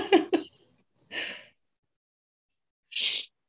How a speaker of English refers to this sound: uh, I have like a tickle in my nose. I'm not sick, but for some reason I sneezed and now it just won't stop tickling.